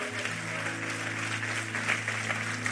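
An audience applauding God, with dense, steady clapping that holds at an even level for a few seconds over a sustained low hum.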